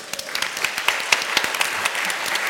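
An audience applauds someone's choice of Malbec wine, dense overlapping claps forming a steady, bright patter with occasional sharper individual claps poking through for a couple of seconds.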